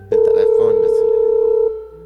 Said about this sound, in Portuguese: Tá chamando, tá chamando.